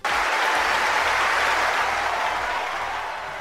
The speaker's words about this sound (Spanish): Así sonaba la ovación al tenista Novak Djokovic tras lograr su victoria en Wimbledon. El serbio se ha impuesto en la final en un parcial de 4 a 6, 6 a 3, 6 a 4 y 7 a 6.